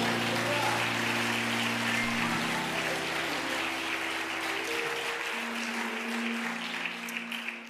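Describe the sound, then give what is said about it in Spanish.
An audience applauds loudly and steadily for several seconds in praise of Jesus, a dense wash of many clapping hands, with sustained low keyboard chords humming underneath. “Denle un aplauso fuerte a Jesús por eso.”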